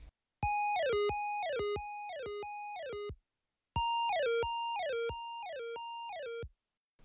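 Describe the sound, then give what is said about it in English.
A slowed-down synth voice sings loud, repeating notes that bend downward in pitch, in two bursts of about three seconds each with a short silence between. Echo trails smear each note. No talking. “Um, but it really sounds like it's going up and down, uh, and that's it's just all in the pitch bend.”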